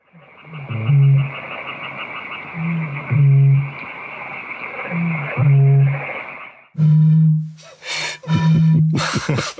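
A Eurasian bittern's deep, hollow booming call repeats about five times at a steady pace, each low resonant boom standing out over a faint hissing background.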